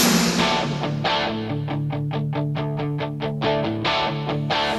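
A rock song intro played loud, with a distorted electric guitar strumming steady, evenly spaced chords over a sustained low note. No one speaks.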